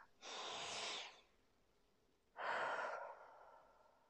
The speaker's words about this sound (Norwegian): Jeg puster inn alt det gode.